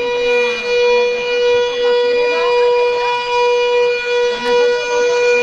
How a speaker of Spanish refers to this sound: que ayer la estuvieron probando. Vale, que es la sirena de guerra.